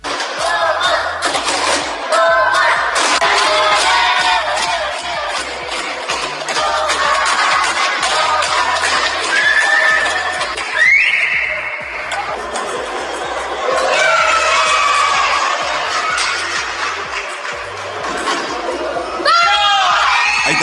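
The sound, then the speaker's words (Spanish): A group of friends from Osorno cheers loudly, celebrating a boy's winning point in the final of a national championship in the Under-11 category; excited shouts, whoops and high-pitched yells overlap in a dense, continuous burst, with a few shrill cries rising above the noise. “punto ganador de Tomás. Y la celebración con todos sus amigos de Osorno.”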